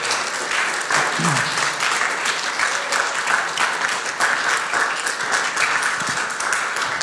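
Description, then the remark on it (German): A crowd applauds steadily for about seven seconds to welcome a young family invited as evening guests, a dense, even wash of many hands clapping at constant loudness, with faint voices murmuring underneath. “Ein großer Applaus für euch aus unserer Seite.”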